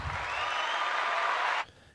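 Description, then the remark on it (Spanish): A dense burst of audience applause, steady and fairly loud for over a second and a half, then cutting off abruptly into near silence. No voices are heard. “Realmente hay personas que nomás vinieron aquí a aplaudir”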